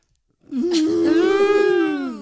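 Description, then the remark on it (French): A person imitates a rutting stag's bellow with one long, loud, moaning call that rises and holds steady for about two seconds, with no other talk. “il faut savoir imiter le brame du cerf.”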